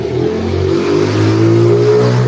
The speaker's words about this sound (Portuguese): Ah, passou uma moto aqui.